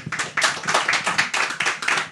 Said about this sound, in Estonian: aga ma paluks äh, aplaus meie panelistidele.